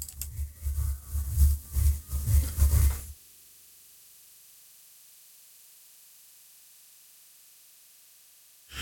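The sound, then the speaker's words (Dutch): Loud, crackling, distorted audio surges for a few seconds, then cuts out abruptly into near-silence with only a faint hiss as a stream drops out during a wifi failure, before a brief blip returns at the end. “er is een wifi-storing, mensen.”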